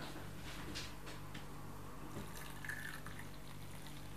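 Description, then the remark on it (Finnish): More coffee poured into a cup as a refill: a steady, soft trickling stream of liquid over a low hum, with a faint rising tone near the end as the cup fills. No one speaks. “Otatko lisää kahvia?”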